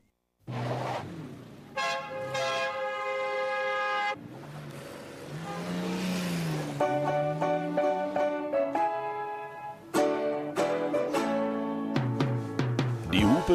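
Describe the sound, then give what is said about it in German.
A car horn honks loudly in several long, blaring blasts, while an engine rumbles and revs up as the car pulls away between them. No one speaks. “die Sendungen fingen an, wie sich das für ein Taxi gehört, mit einer Hupe.”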